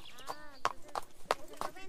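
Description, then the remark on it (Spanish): Donkey hooves clip-clop in a steady, unhurried rhythm of sharp knocks, with a voice talking over the footfalls. “¿Me podría ayudar usted a subir una chicha a mi burro?”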